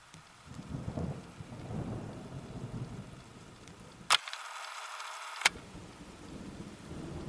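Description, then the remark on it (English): Steady rain pours down with deep rumbles of thunder rolling underneath; midway the low end abruptly drops out for about a second, leaving a thin hiss bracketed by sharp clicks. “So I just stared as she stepped into the rain.”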